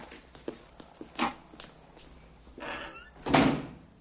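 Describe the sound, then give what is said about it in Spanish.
A few soft footsteps and light knocks lead to an office door creaking and swinging as a commander leaves, then closing with a loud, solid thud near the end. No one speaks. “El comandante le mira fijamente, luego gira hacia la puerta y sale.”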